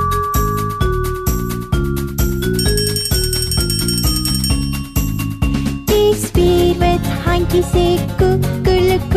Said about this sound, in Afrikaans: my fiets se klokkie sê tring tring tring